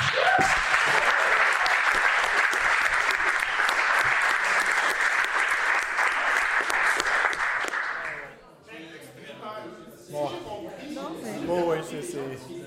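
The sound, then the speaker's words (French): An audience of merchants, property owners, residents, elected officials and city employees applauds itself for its mobilisation, loudly and steadily for about eight seconds, a dense wash of many clapping hands, before the clapping stops and a person begins speaking. “Mais il faudrait qu'on s'applaudisse tous ici euh, de cette mobilisation euh, exemplaire.”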